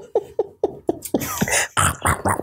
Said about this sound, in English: I can hear you chewing rhubarb.